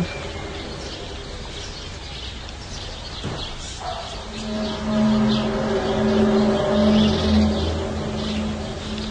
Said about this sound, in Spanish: escuchan los pájaros, pero de fondo como en el cielo retumbando no sé.